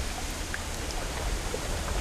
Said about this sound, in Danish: Lyden af vinden i siven blander sig med den fjerne, rolige trafik.